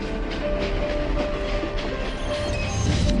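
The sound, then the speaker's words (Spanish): A train rumbles along the rails with steady, continuous rolling noise and a faint metallic clatter, loud throughout, with no voices. “Próxima parada, Kodama Station. Tu viaje hacia la cultura y el conocimiento.”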